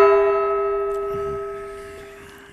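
A single loud gong strike rings out, its metallic tone humming with steady overtones and fading slowly over a few seconds, with a faint low murmur underneath.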